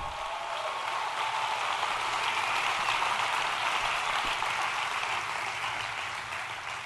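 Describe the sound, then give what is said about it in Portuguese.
An audience applauds the Lord in a dense, steady wash of clapping that holds at an even, fairly loud level for about seven seconds, with no voices over it. “Vamos, vamos aplaudir o Senhor.”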